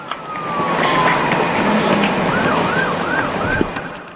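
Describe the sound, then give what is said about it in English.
A police siren wails in rising and falling sweeps over a steady rumble of road traffic on a state highway, drawing closer as the vehicle approaches. No one speaks. “All right, so you can hear there's a you can hear the vehicle in the background. It's approaching. Okay, there's another vehicle approaching.”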